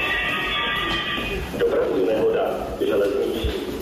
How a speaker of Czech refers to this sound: Přesně tak zní poplach i profesionálním hasičům na stanici v Domažlicích a okamžitě vyráží do akce.